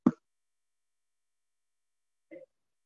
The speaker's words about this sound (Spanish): ¿Por qué no puedo sacar la vara? Pues, la pongo, la, la vuelvo a poner. ¿Cuál es el problema? La saco, la vuelvo a poner.